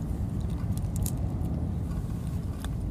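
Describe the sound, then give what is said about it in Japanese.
A few light, scattered clinks of a plate close to the microphone as a person eats potatoes, irregular taps over a steady low background rumble, with no one talking. “口よりこのお皿の方が近くにあるからカチャカチャいってんのは音めっちゃ入ってんのか”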